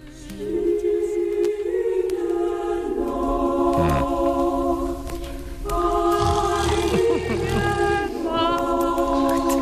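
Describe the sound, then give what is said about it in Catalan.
A slow Christmas carol, Silent Night (Santa Nit) in its original 1818 version by Franz Gruber and Joseph Mohr, sung in long, sustained notes over soft accompaniment, playing steadily and clearly at moderate volume from start to finish. “Doncs aquesta és la Santa Nit que coneixem a Catalunya, la coneixem així, però la versió original és de 1818, per això no celebra el seu 200 aniversari i realment sona així.”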